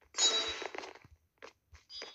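A video game throwing star sound effect, which plays when a player is killed by the murderer: a bright, metallic whooshing burst with a thin ringing tone, followed by three shorter, fainter metallic swishes. No one speaks.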